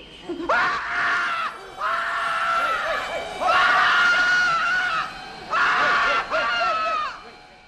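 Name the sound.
man screaming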